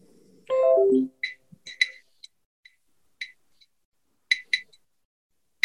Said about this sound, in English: Now it's beeping or clicking. The faster the clicks, the, faster the frequency means that more words are detected.